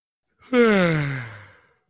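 human body sound, yawn

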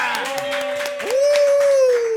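crowd, applause

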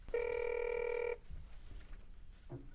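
signal or alarm, telephone ringing

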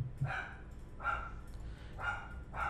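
animal, dogs barking

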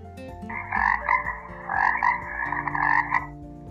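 animal, frog croaking

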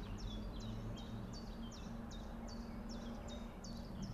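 bird, common chiffchaff singing

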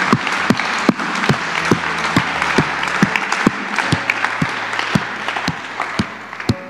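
crowd, applause from church audience

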